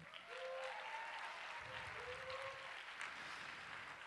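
A crowd at Moran Park breaks into sustained applause for a teacher coming up from the balcony, steady dense clapping filling the whole stretch at an even loudness, with a couple of faint whistle-like tones rising briefly above it.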